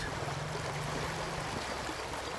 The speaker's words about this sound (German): An der Röschmühle fließt ein Teil des Mühlbachwassers wieder in die Pegnitz.